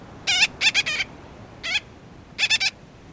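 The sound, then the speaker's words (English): A gull-billed tern calls with short, nasal, raspy notes, about eight in quick clusters of two or three separated by brief pauses, clear against a quiet background with no talking. “Compared to those names, maybe the gull-billed tern doesn't sound quite as outlandish.”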